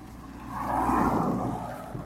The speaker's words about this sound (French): Très bien, on va laisser passer la voiture.